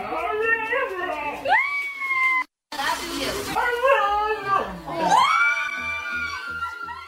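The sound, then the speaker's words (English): A dog, taught by its owner in Massachusetts to say "I love you", lets out several drawn-out, wavering howl-like vocalizations whose rising and falling pitch mimics human speech, loud, with crowd noise behind and a brief silent break. “taught her dog to say, I love you.”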